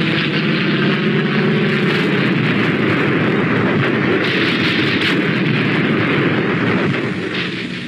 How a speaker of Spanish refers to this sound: Mientras la embajada norteamericana transmitía ruidos de batalla por altavoces, los aviones estadounidenses se arremetían contra el Palacio Nacional.